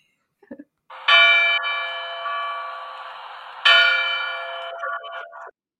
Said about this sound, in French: ça, c'est un clocher.